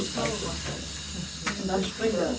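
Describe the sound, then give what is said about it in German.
A steady, continuous hiss of compressed air flowing into a miner's pneumatic pick hammer as air is put on it, constant throughout, with people talking over it. “ne, ich mache mal eben Luft drauf.”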